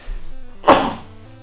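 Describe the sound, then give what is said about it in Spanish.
A single sharp sneeze bursts out, loud and sudden, then fades quickly against a quiet background hum with no talking. “Perdón. Salud. Perdón.”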